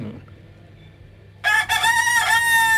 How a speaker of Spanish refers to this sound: Tenemos ahí al gallo